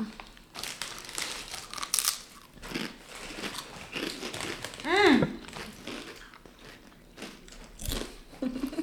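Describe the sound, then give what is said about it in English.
A crinkly chip bag rustles open, followed by a run of crisp, irregular crunches as chicken-flavored chips are bitten and chewed. A short voiced murmur sounds partway through. “So they're they're chicken flavored. Like chicken salt's a really big thing in New Zealand.”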